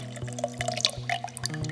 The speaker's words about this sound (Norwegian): Tenk deg at du heller vann oppi et glass.